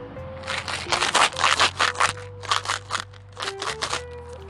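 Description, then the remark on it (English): Imitated clapping: a quick run of crisp, crackly bursts in uneven clusters, pausing briefly before a final flurry. A faint steady hum sits underneath, and no one speaks. “And that was, that was supposed to mean people are clapping.”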